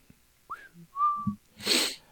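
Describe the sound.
A person whistles a quick little phrase: a short upward slide, then a clear held note, followed by a sharp breathy burst of noise. No talking.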